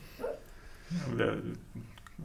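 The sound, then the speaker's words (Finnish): A sleeping dog makes soft, muffled woofs and whimpers in a few short bursts, quiet, as it barks and runs in a dream. “Mutta että siellä unessa Koira. haukutaan ja juostaan ja Juu.”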